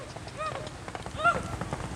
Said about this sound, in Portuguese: Passando uma galera aqui a cavalo. Você viu o pau que eles estavam? Muito rápido.